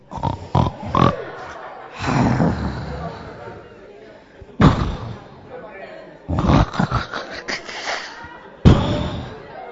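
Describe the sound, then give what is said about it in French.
A voice imitates loud snoring: a series of rough, nasal snorts and grunting breaths in irregular bursts, some short and sharp, others drawn out, with brief pauses between them. “Et puis tu commences par ronfler.”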